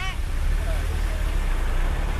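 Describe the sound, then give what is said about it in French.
Congested city street traffic at Place de la Concorde in Paris on a Friday at 5 pm: a dense, steady rumble of idling and crawling cars, including private cars in the bus lane, fills the scene continuously, fairly loud, with a brief higher-pitched tone right at the start. “Vendredi soir, 17h, place de la Concorde à Paris. Des voitures partout.”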